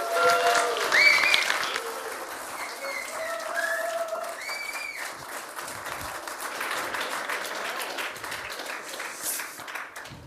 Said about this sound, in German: Und die Gastgeber, die begrüßen wir jetzt mal mit einem riesengroßen Applaus.